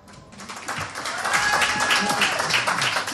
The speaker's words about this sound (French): Ils jouent pour nous sur France Bleu en live. …, on peut les applaudir.